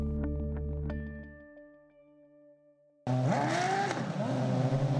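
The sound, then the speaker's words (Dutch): Race car engines roar and whine, first a steady harmonic drone that fades, then a sudden loud burst of cars screaming past with rising and falling pitch sweeps. “Een podcast waarin autoracers aan het autoracen zijn en tijdens het racen vertellen wat hun ervaringen zijn”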